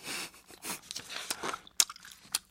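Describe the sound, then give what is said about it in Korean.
Wet chewing sounds with smacking and squelching, repeated in quick irregular bursts for a couple of seconds, as a person vigorously chews a piece of gum. “나는 열심히 껌을 씹기 시작했다.”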